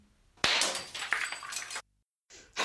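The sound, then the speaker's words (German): A Chinese flower vase, also called a Greek wine jug, is knocked over and shatters with a sharp crash, followed by a scatter of bright tinkling shards that rattle for over a second before going silent, then a final short clatter. “verdammt nochmal, jetzt habe ich eine chinesische Blumenvase umgeworfen. Den griechischen Weinkrug. Kaputt.”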